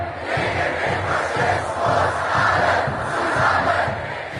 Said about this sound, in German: Seit einer Woche gehen Hunderttausende Menschen gegen rechts auf die Straße, rufen alle zusammen gegen den Faschismus, wie gerade gehört, in Hamburg.